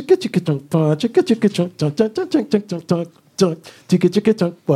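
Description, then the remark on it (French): A voice mimics a turntable transformer scratch with the mouth: rapid, choppy vocal bursts chopped into quick stuttering pulses, fairly loud, with a brief pause before another run of chopped sounds. “faisais, les scratchs toi-même avec fait, bouche, c'est ça en fait”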